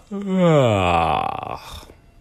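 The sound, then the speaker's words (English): A single long, drawn-out human yawn, voiced, performed as Goldilocks yawning in a telling of Goldilocks and the three bears, starting low and rising into an open breathy sigh before trailing off into a quiet exhale. “Now, with that, Goldilocks yawned.”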